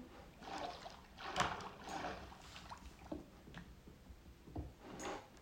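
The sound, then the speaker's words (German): Several soft wooden clunks and taps from a door being placed back again in a video game, spaced irregularly over a few seconds, fairly quiet with no voices. “Aber ich werde jetzt gar nichts mit dir machen sondern dich einfach wieder platzieren.”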